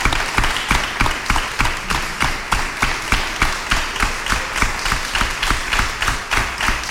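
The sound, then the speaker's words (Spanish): An audience applauds steadily for about seven seconds, a dense wash of many hands with a faintly regular, rhythmic pulse running through it, welcoming the head (hermano mayor) of the Milagrosa brotherhood to a radio programme. No one speaks over the clapping. “Bueno, vamos a darle un aplauso al hermano mayor de la Milagrosa,”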